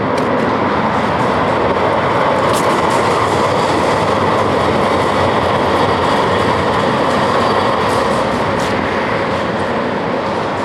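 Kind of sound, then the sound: vehicle, tram passing by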